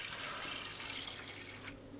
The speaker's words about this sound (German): So, jetzt haben wir genau sechs Sekunden lang gemessen und dann messen wir die Menge an Wasser, die hier im Eimer gelandet ist, mit dem Messbecher genau ab.